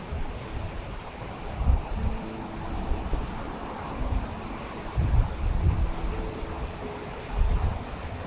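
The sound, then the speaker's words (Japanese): Strong waves surge and crash against a seawall in a steady rumbling wash, with heavier booming hits every couple of seconds and wind buffeting the microphone throughout. No one speaks. “まあ、こんな感じで今、ちょっと音が入ってるかわかんないですけど、波がね、結構強めの音が、強めの波ですね、今日は。”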